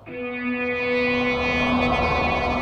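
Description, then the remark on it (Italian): A loud, steady siren tone blares with no voices as a car with sirens overtakes. The siren holds its pitch, then starts to fade away after about two seconds. “Sentivo le loro voci concitate, che si fecero mute quando un'auto ci superò a sirene spiegate.”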